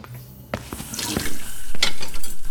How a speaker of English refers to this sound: We're going to get our morning started with some stinky stinky dishwashing. Uh, okay. Couldn't be that hard. You're on the island sink, I'm on the window sink.